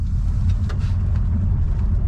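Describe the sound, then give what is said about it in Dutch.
A steady, heavy low rumble of cars on the road as a team of about eight police officers, split over a few cars, drive to the house of a suspect. The sound is continuous and fairly loud with no voices. “Een van de teams bestaat uit een flinke groep agenten, bij elkaar zeker acht man, ze verdelen zich over een paar auto's en gaan op weg naar het huis van een van de verdachten.”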